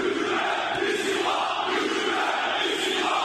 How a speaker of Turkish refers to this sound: Önce Fenerbahçe ardından Beşiktaş'ın stadından yükseldi hükümet istifa sesleri.